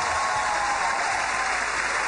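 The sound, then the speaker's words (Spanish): Steady, dense applause from a studio audience welcoming Aura Elena Prada on the show Bla Bla Blue, a continuous wash of many hands clapping at even loudness throughout, with no voices standing out. “Recibamos con un fuerte aplauso a la bellísima Aura Elena Prada.”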